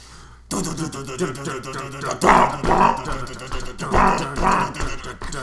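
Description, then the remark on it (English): After a brief quiet moment, a loud, dense metal song kicks in with heavy distorted instruments and harsh, guttural growled vocals bursting out in rough, repeated phrases, with a nut product-placement reference in the lyrics. “They made us insert plot product placement into all of our most metal tubes. Yeah, listen to this ditty that was completely ruined by nut reference.”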